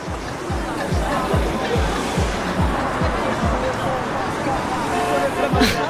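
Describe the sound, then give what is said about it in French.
Loud, dense city street noise in Marseille, France: traffic roar with car horns and crowd chatter blend into a constant din, with a steady rhythmic low thumping running underneath and a brief sharper burst near the end. “Alors je sais pas si tu entends, mais il y a du bruit puissance 1000. Des voitures partout, des klaxons, des gens qui grouillent.”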